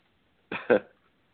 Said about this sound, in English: Oops, excuse me, my hiccups.